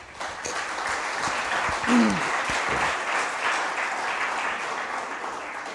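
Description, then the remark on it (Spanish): An audience applauds God steadily for several seconds, a dense, even wash of clapping with a brief voice rising through it near the start. “Por favor, dele un aplauso a Dios, ¿sí?”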